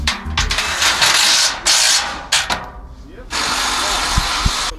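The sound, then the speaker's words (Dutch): Crowd barriers being set up along the route to the circuit in Zandvoort: loud scraping and rattling in long bursts with short pauses, a couple of sharp knocks near the end, and faint voices in the background. “Je hoort het, er worden barriers klaargezet op dit moment.”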